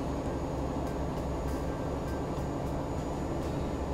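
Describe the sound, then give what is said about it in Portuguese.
A heavy truck rumbles by with a dense, continuous low-end roar that holds steady throughout, faint rhythmic ticking over the top, and no voices. “É, o caminhão está pesado.”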